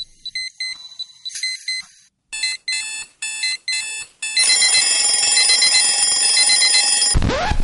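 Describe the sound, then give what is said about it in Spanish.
An electronic alarm clock beeps in quick bursts that grow longer, then settles into a continuous loud ringing tone before cutting off abruptly with a sweeping drop. No voices. “Sabemos lo mucho que odias este sonido. Nosotros también. Mejor inicia tu día”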